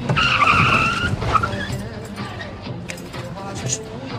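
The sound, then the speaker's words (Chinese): A car brakes abruptly as its driver stops it, without a collision, its tires letting out a loud, high-pitched screech for about a second before the noise settles into a lower, rumbling hum of the vehicle. “你不让我把车停了吗？”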